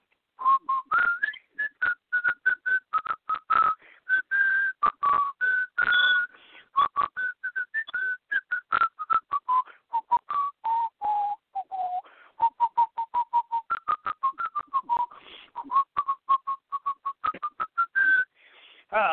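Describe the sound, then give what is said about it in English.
Someone whistles a lively tune alone, a song written by a nun, a steady stream of short, bouncy notes rising and falling in a clear melody, fairly loud for about twenty seconds. “The Roman Catholic Church has never apologized for this atrocity, but one of their nuns wrote a song about it, which I will whistle for you, and I'm sure you'll recall it.”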